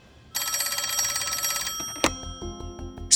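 A telephone bell rings in one loud, rapidly trilling burst lasting about a second and a half, then cuts off, followed by a sharp click and a faint lingering tone; the phone at the Craters' summer home in Belgrade, Maine, around July 24, 1930.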